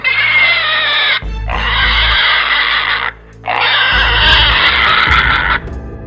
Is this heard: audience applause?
no